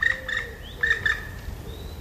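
A black woodpecker's flight call: four loud, ringing, slightly harsh notes in an uneven series, two close pairs, over a steady low rumble, with no one talking.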